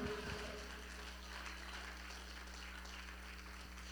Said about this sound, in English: Won't you give God a hand clap of praise?